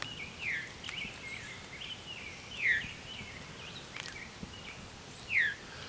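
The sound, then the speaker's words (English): A veery, a type of thrush, moving overhead, gives three downslurred 'veer' calls spaced a couple of seconds apart, clear, with faint chirps from other birds in a quiet outdoor background. “Veery is a type of thrush, and it's named for this viru call.”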